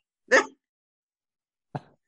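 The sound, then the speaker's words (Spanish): Two short, sharp dog barks about a second and a half apart, with silence between them and no voices, sounding somewhat distant in the background. “Y los perros atrás se oyeron así.”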